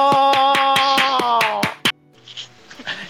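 An audience claps in a steady rhythm, about nine sharp, evenly spaced claps over a sustained musical tone, before everything drops to a faint, scattered crowd murmur.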